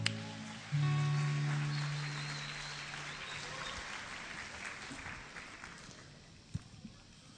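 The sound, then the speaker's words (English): A crowd at a Sunday church service bursts into steady applause welcoming a preacher, many hands clapping at once, with a brief low tone at the start, then slowly fading as the clapping thins out. “So please give him a warm welcome as he comes to preach the word to us.”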